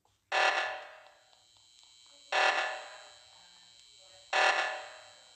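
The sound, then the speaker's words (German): A harsh video game alarm buzzer blares three times at steady two-second intervals, each loud burst starting abruptly and fading out before the next, with no voices. “Wir sind ein Alarm.”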